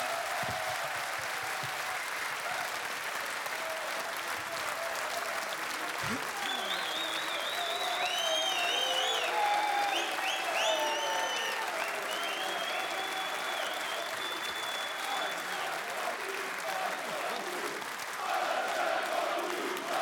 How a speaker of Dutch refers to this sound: Onze gasten hebben bedankt. Een laatste applaus voor de gasten.